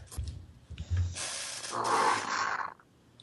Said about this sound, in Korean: 그러니까 이 오토바이 소리가 더 무서워 나. 이거 누구 소리야 이거? 나는 저 아니야. 저쪽 창에서 나는 소리야.